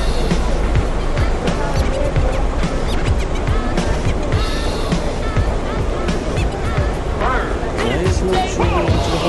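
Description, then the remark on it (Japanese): Busy Tokyo Station concourse ambience while walking from the platform, past a long escalator, toward the ticket gates: a steady, loud wash of crowd murmur and echoing footsteps, with scattered sharp clicks and thuds throughout. “今長いエスカレーターを越えて、えー、改札に向かうところとか”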